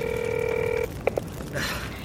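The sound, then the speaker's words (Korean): A mobile phone's steady electronic tone holds for almost a second, then two quick dialing beeps follow as an emergency call to 119 is placed to report a spreading fire, leaving faint background hiss. It is clear, with no one speaking. “아, 아 일단 신고부터 하자. 아, 아, 아 근데 핸드폰 이거 금방 꺼지겠는데?”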